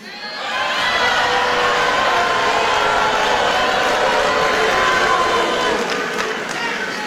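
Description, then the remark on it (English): A large arena crowd cheers and roars continuously during a two-hour speech, a dense, loud wash of many voices that swells in quickly and holds steady for several seconds. “And and now he is the rock star of all rock stars with a two hour speech and nobody leaving the room and everybody cheering.”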